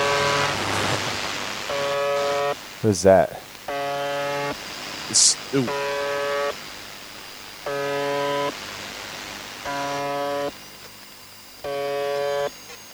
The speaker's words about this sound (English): This is the this is the buzzer. You guys know the buzzer, right? Buzzer. Yes. Uh, so uh, the idea behind this is that where hold on, where is this coming out of? Russia? Somewhere in Russia